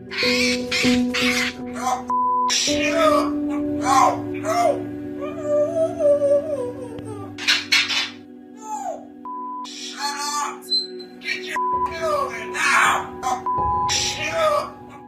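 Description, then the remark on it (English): A pet bird mimics human voices in garbled speech-like phrases, reenacting what it heard the night its owner was killed, with rising and falling wails and shouted tones, switching between different voice imitations over a steady background hum. “It's all pretty chilling, but also amazing at the same time that this little bird voiced what he saw that night when he lost his loving owner.”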